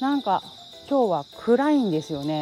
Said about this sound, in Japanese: ただまあ相変わらずスズムシの声は非常に元気で元気にいつも通りリンリンリンリン泣いていますけど聞こえますかね多分バックで聞こえますよね本当はあのこの時間帯というか一日中なんですけど家の窓閉めててもこのスズムシの声ずっと聞こえるんですよ。田んぼが多いからですかね。